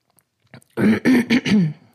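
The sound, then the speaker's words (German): A faint, quick sip of water, then a loud throat clearing in several rough, voiced bursts lasting about a second, with no talking. “So ein kleiner Schluck Wasser”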